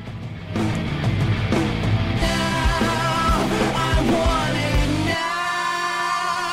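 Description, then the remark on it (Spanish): A loud, gritty distorted bass guitar drives a dense rock song with pounding drums, the heavy low end dropping away near the end to leave a ringing, sustained chord. “O sea, su marca característica del sonido es ese bajo. Claro, es ese bajo con distorsión.”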